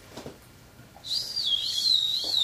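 A person whistles a continuous, wavering high tone that glides up and down, starting partway in and sustained to the end, clear with no talking over it.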